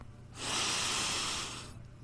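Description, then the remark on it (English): A single long, deep inhale during a meditation breathing exercise, a steady airy rush lasting about a second and a half before fading, with no talking. “Let's work on our breathing. Inhale, deep.”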